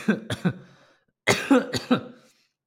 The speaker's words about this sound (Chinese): 那 OK，呃，最近有那个刚解隔离啊，然后呢，就是后遗症就是还会咳嗽。我今天去游完泳哦，就就开始狂咳嗽这样。